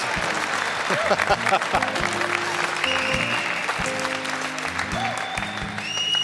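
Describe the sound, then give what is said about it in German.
Steady clapping from a studio audience runs through the whole clip, a dense, even patter with voices and some tonal sounds layered over it. “Äh, normalerweise gibt es diesen Applaus erst an der Stelle, wenn ich den Mann hier vorstelle.”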